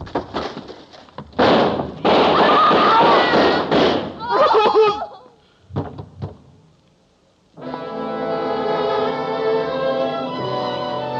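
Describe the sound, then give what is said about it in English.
A volley of loud gunshots fired by police rings out in rapid, ragged succession, then a couple of isolated sharp cracks, and after a brief pause sustained orchestral music swells in. “Ruth faced that door, fired a shot into the ceiling, and the guns of the police chopped her down.”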